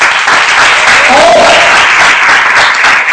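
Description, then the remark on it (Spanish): Loud, steady applause from an audience fills the whole stretch, a dense wash of clapping that holds at full strength without pause, with a faint voice briefly rising through it. “a un fuerte aplauso para aquí.”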